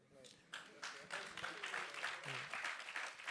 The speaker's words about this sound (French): On peut les applaudir.